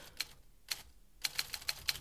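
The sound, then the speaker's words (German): Someone types on a typewriter on the first floor: keys clack in an uneven rhythm, a few isolated strikes followed by a quicker burst of about six, each a sharp metallic tap, with no voices. “Da schrieb doch jemand im ersten Stock auf einer Schreibmaschine”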